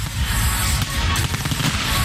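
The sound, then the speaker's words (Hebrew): Fireworks burst in a dense, rumbling barrage at the New Year celebration in Paris, ending an audio-visual show projected on the Arc de Triomphe. Deep booms and crackles overlap continuously, with a few sharper pops standing out partway through, loud throughout. “פריז קיבלה את השנה החדשה, כרגיל במופע אודיו-ויזואלי שבסופו זיקוקים מרהיבים, שהוקרן על שער הניצחון ושעמד הפעם בסימן האחווה.”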